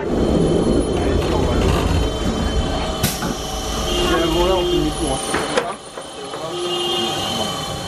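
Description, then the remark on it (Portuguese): A tram rumbles along with steady low mechanical noise, squealing and clattering as it slows to stop at Calçada de São Vicente, with a sharp clank and brief hiss near the end; a voice briefly speaks over it. “O elétrico para na calçada de São Vicente”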